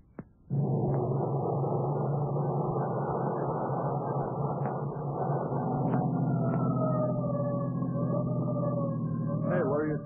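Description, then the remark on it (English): A siren wails with slow, gliding pitch over a loud, steady low engine drone that starts abruptly and continues without a break. “But why the siren?”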